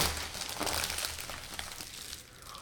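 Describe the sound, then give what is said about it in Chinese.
Paper crinkles and crackles without a break as the first package from mailbox No. 18 is unwrapped, a dense, bright rustling that stays fairly steady before easing off toward the end. No one speaks. “18號信箱的第一個包裹”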